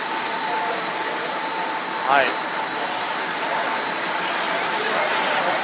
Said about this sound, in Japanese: 今雑音が激しいですかね今のバス停で待ってる途中なのでかなりあのー、かなりちょっと雑音が入ってきもうお許しください